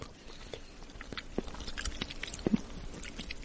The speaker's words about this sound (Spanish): Estoy comiendo un chocolate negro